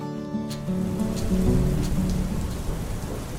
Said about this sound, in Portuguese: A mesma chuva que acalenta com seu barulho e cheirinho alguém dormindo no conforto de casa é a que causa medo, dor e perda para milhares de famílias em situação de rua ou que não contam com uma infraestrutura ideal.